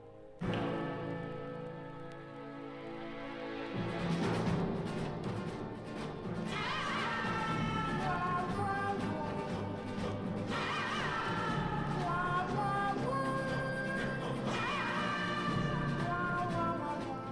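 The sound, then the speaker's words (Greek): Dramatic Wild West film orchestral theme with a high whistled melody rising over full accompaniment, punctuated by a few sharp whip cracks at intervals; loud, no talking. “Το μελωδικό σφύριγμα, όπως και το χτύπημα ενός μαστίγιου, ήχοι που εισήγαγε ο ίδιος, έγιναν σημεία αναφορά της άγριας δύσης.”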